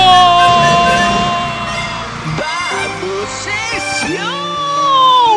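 A loud group of voices shouts and chants together in a steady, repeated cheer, overlapping yells rising and falling as they urge someone on, filling the whole moment.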